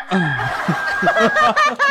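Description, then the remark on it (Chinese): A man's voice imitates a hen clucking after laying an egg: a run of quick, rhythmic clucks rising into a final drawn-out squawk, loud and alone. “我就直接蹲那个草地上给那女孩打电话，还学母鸡下蛋，我就逗她，咕咕咕咕咕哒。”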